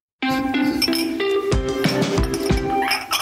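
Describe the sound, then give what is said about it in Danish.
Bright glassy clinks and jingling ring out repeatedly over a few seconds, with sharp metallic transients at intervals, like ice and glass knocking together while a cocktail is mixed. “Kan du høre det? Det er ikke, det er ikke julemanden, det er ikke Jingle Bells. Det er Carsten Reinhold, der er kommet for at lave cocktail.”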